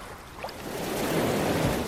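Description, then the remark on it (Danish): Ocean waves wash in with a broad, hissing rush that swells steadily louder toward the end, with no voices present. “Og nu tager bølgerne den med sig.”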